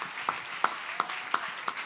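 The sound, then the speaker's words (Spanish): An audience claps for the Lord together in a steady rhythm, about three beats per second, with sharp unison claps standing out over a continuous wash of scattered hand noise. “Si ese aplauso es para el Señor, mira hermano.”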